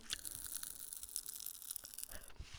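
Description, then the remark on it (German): Popping candy crackles and fizzes on a tongue inside a mouth, a dense stream of tiny snaps and pops, faint, with no talking over it. “Ach so, also wenn ihr das knistert hört, das war meine Zunge.”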